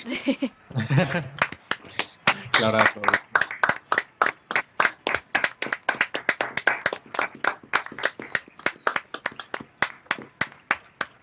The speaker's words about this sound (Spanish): Vale, pues si queréis, vamos a aplaudir.